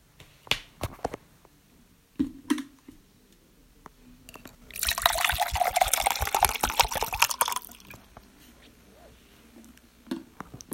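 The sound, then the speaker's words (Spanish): Flowing water of the river Tiber rushes and splashes for about three seconds, moderately loud, framed by scattered soft drips and clicks before and after. “Pero por temor al rey Amulio, los colocó en una cesta sobre el, sobre el río Tíber”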